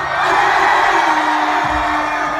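At a music performance in Shanghai, the crowd on the right side screams and cheers loudly and steadily when the performer asks for screams, a dense wash of high-pitched shrieks and whoops sustained for the whole stretch without letting up.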